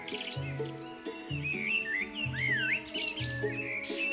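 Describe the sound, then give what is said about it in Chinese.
Birds chirping in a lively stream of high, sweeping tweets and trills, layered over a steady, repeating low musical pattern that plays throughout. “他也翻山越岭，爬到最高的山上呢，收集了叽叽啾啾的鸟叫声。”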